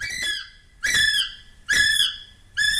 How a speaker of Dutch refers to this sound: Maar we willen toch best wel horen hoe zo'n kiwi klinkt. Dus is hier nog even voor de geïnteresseerden een mannetjeskiwi die een maatje zoekt.